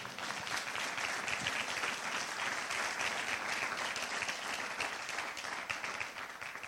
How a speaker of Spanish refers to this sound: Alguien le da un aplauso fuerte al Señor.